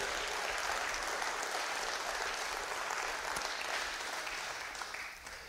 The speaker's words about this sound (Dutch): En ik wil u vragen om een applaus. Voor Jezus, de grote koning.